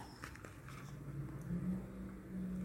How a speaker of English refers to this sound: Sound of the garbage trucks and construction and everything. I don't know if you can hear that or like how bad it is.